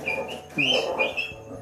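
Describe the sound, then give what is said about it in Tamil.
Dogs scuffle, with a few sharp, high-pitched yelps and whining cries rising and falling in quick bursts over a low background hum; it is a household's own pet dog fighting. “அது எங்கள் நாய் இங்கே தான் சண்டை போட்டுக்குது”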